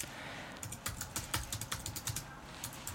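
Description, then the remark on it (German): Rapid, irregular clicking of keys on a computer keyboard as the search terms "Klang und Raum" are typed into a search engine, a steady burst of typing lasting a few seconds, moderately quiet with no voices. “ich gebe jetzt mal äh, die Begriffe Klang und Raum in die Suchmaschine äh, ein.”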